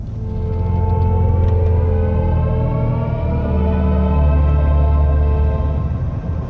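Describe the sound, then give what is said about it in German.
A synthetic electric-vehicle drive sound at higher speed, reaching its second sound plateau at 120 km/h: a steady, loud layered hum with sustained harmonic tones stacked above a deep low drone, holding evenly throughout with no speech. “Wir erreichen das zweite Plateau von Sound. Es ist ein zweiter Schritt, wo die Harmonie noch weiter sublimiert und erreicht den zweiten Plateau bei 120 km/h, was auch in vielen Ländern so der Höchstgrenze äh, ist.”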